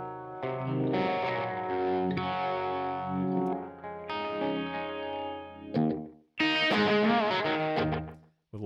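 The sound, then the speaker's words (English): An overdriven electric guitar plays sustained chords and short phrases through an amp, with a quick, heavy slapback delay doubling each note and no reverb, loud with no voices. “That's my go-to sort of adding ambience with mm-hmm. a delay, and that's a lot of slap to be fair.”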